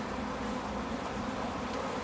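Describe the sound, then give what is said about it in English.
A dense, steady drone of many bees buzzing together as a big Tupperware pot full of bees is tipped out and knocked down into a hive, with bees all over the hive and the lemongrass; a continuous hum with no breaks, moderately loud throughout. “Wow, she's just tipped out a big Tupperware pot full of bees, just knocked them down into the hive.”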